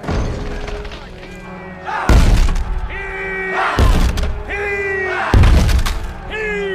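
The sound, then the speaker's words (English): A battering ram slams against a city gate three times at steady intervals, each heavy, booming thud cracking through loudly while voices shout and call beneath. “That's your gate he's ramming.”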